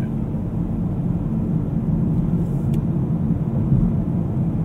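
Steady low rumble of road noise inside a moving car, a constant dense drone with tire roar and engine hum filling the cabin, no voices and no distinct events, loud and unchanging throughout. Binaural test recording made with earphone-type microphones while driving to pick up a Hotto Motto bento ordered through the app.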